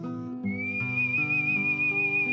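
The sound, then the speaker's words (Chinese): A steady, high whistled tone enters after a brief moment and holds with slight wavering, sung out over sustained, slowly shifting musical chords. No one speaks. “我在时间长廊里吹起了口哨，吹走了时光，吹散了光环。”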